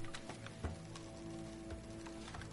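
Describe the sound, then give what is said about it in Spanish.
Irregular heavy thuds as a zombie, locked inside a large padlocked hollow metal container, pounds on it, each blow leaving a low resonant ring that hangs in the air. The pounding is fairly quiet and steady, with no voices. “mientras el zombi aporrea al contenedor.”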